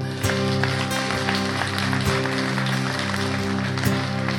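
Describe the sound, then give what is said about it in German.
A church audience applauds Jesus steadily throughout, a dense crackling wash of many hands clapping, with a sustained keyboard chord and a few soft beats underneath. “Lass uns Jesus mal einen Applaus geben.”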